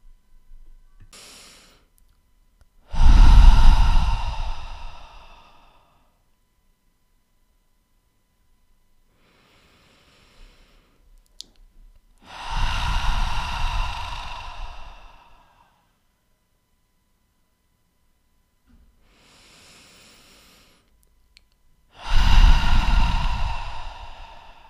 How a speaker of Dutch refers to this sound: Adem diep in door je neus en uit door je mond in jouw eigen tempo. En herhaal dit drie keer.